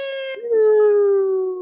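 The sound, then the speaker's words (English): A voice imitates a falling bomb whistle: one sustained, fairly loud tone that steps down and then slowly glides lower for under two seconds, with no other sounds. “the whistle bomb drop like like whenever Wiley Coyote runs out into the canyon”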